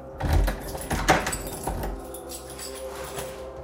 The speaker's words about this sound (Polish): Po czym powoli otwarły się drzwi od pokoju mojej siostry.